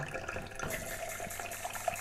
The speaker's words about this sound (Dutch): Oké, ik vul een glas met eh, heet water, met mijn heet waterkraan. Het is mooi dat water zo heet dat het wit is.